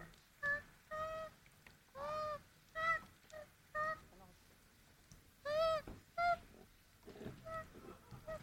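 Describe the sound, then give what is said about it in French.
An injured koala, burned in bushfires in Australia and being rescued by an Australian woman, screams in pain, letting out a series of loud, wailing cries in short irregular bursts, with brief pauses and faint background noise between them. “On entend ce koala qui pleure, clairement, qui pleure, qui a mal”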